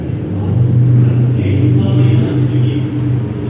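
A motorbike engine drones past outside with a steady, low, humming rumble that holds fairly loud for a few seconds, its pitch shifting only slightly as it goes by.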